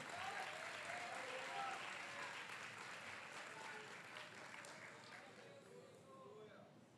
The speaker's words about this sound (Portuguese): Se é verdade nisso, meus irmãos, levante as suas mãos e aplauda Jesus com alegria.